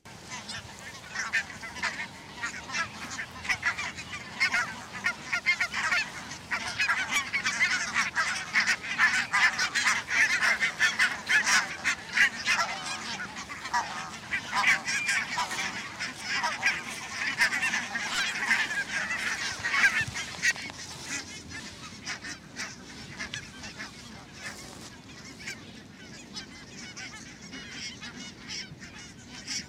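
A large flock of barnacle geese chatters and honks continuously, recorded from about 30 metres away, a dense overlapping din of many calls swelling in the middle and easing slightly toward the end, with no one talking.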